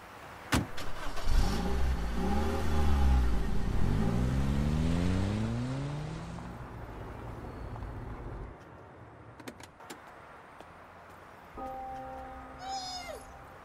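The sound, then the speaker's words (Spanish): A self-charging hybrid car's engine revs up with rising, climbing pitch, then settles and fades, followed by a couple of sharp clunks like a car door shutting and a short high-pitched tone at the end. “qué buen auto, amigo!”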